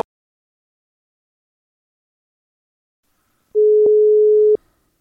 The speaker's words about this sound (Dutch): we hadden even een technische storing. We lagen er even uit.